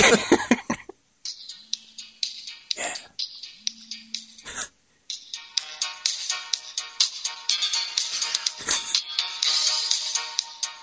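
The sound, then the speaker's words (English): A tinny phone ringtone plays a movie theme tune, a bright, rhythmic melody through a small speaker, preceded by a few short bursts and brief low tones, then running steadily and fairly loud for several seconds. “play the theme for folks. Let's have a look. Actually, you know, it's a really good ringtone.”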